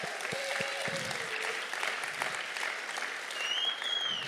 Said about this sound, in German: Gebt ihnen doch nochmal einen Applaus.